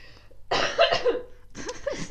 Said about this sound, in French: Ah, alors, le compresseur va s'éclater aujourd'hui. C'est pour ça que j'ai toussé loin du micro.